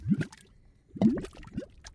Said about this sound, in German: Es brodelt gewaltig an der Erdoberfläche. Was man hier hört, sind Schlammvulkane. Aus ihren Löchern dringen heiße Gase aus den Tiefen der Erde nach oben.